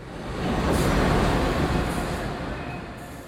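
A train rumbles past a station platform, a broad steady roar that swells to a peak and then slowly recedes. No voices can be heard over the noise.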